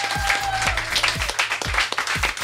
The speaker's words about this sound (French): Merci au public, vous pouvez vous applaudir.